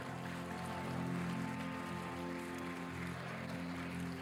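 A crowd claps for God together in a steady, dense burst of applause that lasts several seconds without letting up, with a low sustained musical hum running underneath.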